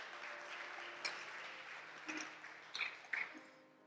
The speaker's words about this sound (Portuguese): ¿Por que não das um aplauso a esse rei tão majestoso que temos?